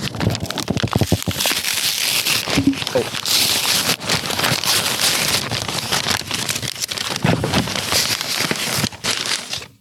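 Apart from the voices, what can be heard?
unwrapping a gift package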